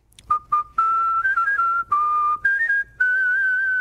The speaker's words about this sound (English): whistles happy birthday for free to people all over D.C. Happy birthday, man. Whether they work in cubicles or oval offices, Democrat or Republican.